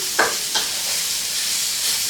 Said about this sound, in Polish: Teraz czekamy, aż się kurczak usmaży